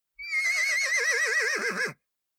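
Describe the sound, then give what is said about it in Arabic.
A single loud horse whinny with a shaky, quavering pitch that climbs then wobbles downward for under two seconds before cutting off. No voices. “قال الكلب قفي وقال الحصان”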